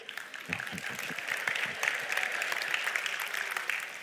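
Sustained applause from a crowd, a dense steady patter of many hands clapping at moderate volume, with a few brief voices mixed in near the start.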